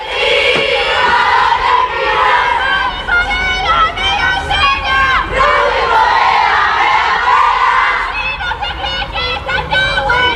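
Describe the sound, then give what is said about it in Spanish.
A loud crowd of young female university students from a residence hall chanting and shouting taunts together at women from other nearby residence halls, in rhythmic, high-pitched unison, sustained throughout with no pause, energetic like a group cheer. “se ha descubierto otro nuevo vídeo con cánticos y esta vez, curiosamente, protagonizado por las destinatarias de los cánticos de la aguja”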